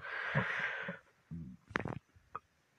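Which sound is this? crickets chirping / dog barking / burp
burp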